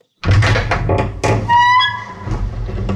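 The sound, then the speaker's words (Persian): A quick series of firm, fairly loud knocks on a wooden house door, followed by a brief ringing tone and some lingering clatter. “فردای اون روز ملخ وقتی داشت لابلای لوازم آشپزخونه دنبال لیوان میگشت در خونش به صدا در اومد”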